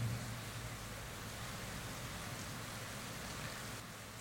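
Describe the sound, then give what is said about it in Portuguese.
Heavy rain pours down steadily, a dense, even hiss of countless drops with no pauses. It holds a constant level throughout, with no voices present. “Esperar passar essa chuva, né?”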